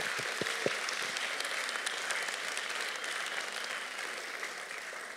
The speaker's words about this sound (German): Gebt doch mal allen älteren Geschwistern hier mal einen extra Applaus.